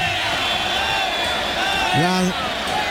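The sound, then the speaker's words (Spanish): A bullring crowd at a bullfight shouts in protest at the matador El Cordobés as he works with the muleta. It is a dense, steady roar of many voices, with one louder rising yell breaking out above the din near the end. “los gritos son fortísimos, pero ¿qué, va a hacer?”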